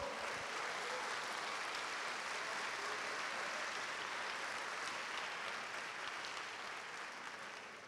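A church audience applauds the Lord steadily for several seconds, a dense, even wash of many hands clapping together, holding a constant level before easing slightly at the end.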